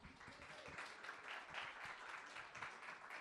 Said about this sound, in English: Uh, just give her a round of applause, ladies and gentlemen.